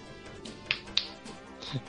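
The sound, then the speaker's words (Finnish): A few soft, sharp pats land irregularly, two close together and then a duller, lower thump after a short pause, like a hand patting someone's back over faint background hiss. “Olemme sitä ylpeitä ja taputtelemme sinua selkään täällä parhaillaan.”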